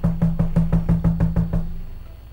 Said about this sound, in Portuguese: Uma vez o cara bebeu tanto, tanto, tanto, tanto, chegou tarde em casa e bateu na porta, assim.